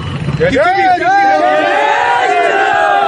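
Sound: protesters shouting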